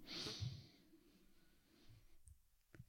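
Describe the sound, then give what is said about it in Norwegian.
One deep, breathy inhale taken as a breathing exercise, fairly loud at first, drawing in with a hissy rush before trailing off into quiet. No talking. “Bare ett pust inn.”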